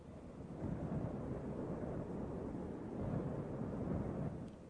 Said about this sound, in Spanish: se levanta un vendaval. Del cielo cae el resplandor de los rayos, el rugido del trueno, una tormenta que parece anunciar el fin del mundo. Los truenos tienen la intensidad de la risa del barón Samedi.